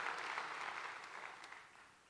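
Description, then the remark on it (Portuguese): An audience applauds the Lord Jesus, a dense wash of many hands clapping at once, steady and fairly loud before gradually thinning and fading toward the end, with no voices over it. “Dê um grande aplauso ao Senhor Jesus.”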